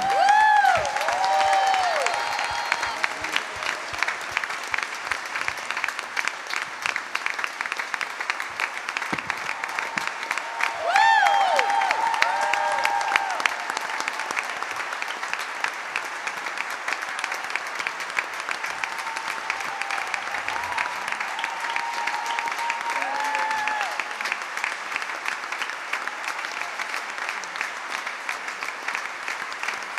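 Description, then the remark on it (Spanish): Loud, sustained applause from an audience, given to the Lord, Jesus Christ, fills the whole stretch. It is a dense crackle of many hands clapping with scattered cheers and whoops rising above it, steady throughout with brief swells. “levante un fuerte aplauso al Señor.”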